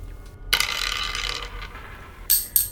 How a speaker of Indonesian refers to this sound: ya elah, pakai jatuh lagi nih pulpen.